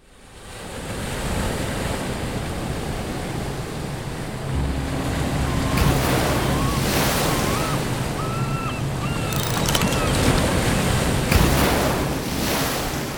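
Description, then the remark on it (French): Continuous rushing wind and sloshing sea water surround a Mini 650 sailboat under way off the tip of Brittany, France, near the island of Ouessant, with a low steady rumble and a few faint high creaks or whistles partway through. No one speaks. “Je suis sur mon bateau, c'est un Mini 650. Ça fait quasiment deux jours que je navigue et j'arrive sur cette zone qui est au large de la France continentale.”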